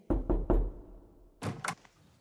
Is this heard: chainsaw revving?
no